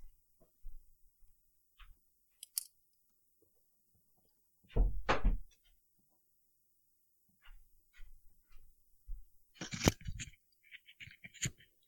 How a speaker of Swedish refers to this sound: Två sekunder, ska jag bara skjuta in dörren